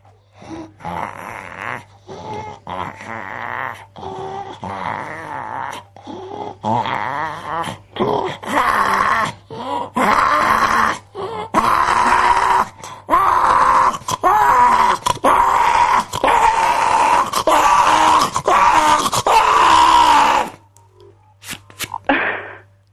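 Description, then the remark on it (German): A person vocally imitates polar bears mating with a long series of rough, rhythmic growling groans and snorting grunts, swelling in loudness for about twenty seconds before stopping abruptly. “ähm, jetzt kannst du mal vormachen, wie die sich paaren.”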